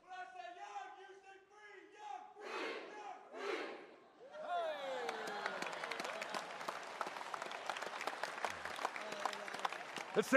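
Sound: crowd shouting and cheering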